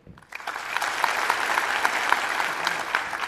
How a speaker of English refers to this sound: Clap your hands if you think this is real. Clap your hands if you think this is fake.